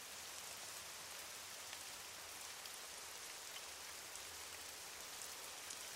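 Steady rain falling, a dense, even hiss of countless drops with no gaps or pauses. The sound is soft overall and stays constant throughout, with no voices.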